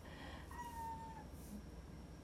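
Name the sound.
cat meowing angrily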